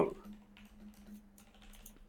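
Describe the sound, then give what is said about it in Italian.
Soft, irregular clicks of typing on a SteelSeries mechanical keyboard, a few scattered keystrokes heard faintly over a steady low electrical hum. “me l'hanno mandata l'anno scorso, una bella tastiera meccanica della Steel Series.”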